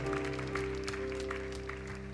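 An audience at a church leadership conference claps steadily throughout in thanks and praise to God, the applause mixed with held, sustained keyboard chords that ring underneath at a fairly even loudness.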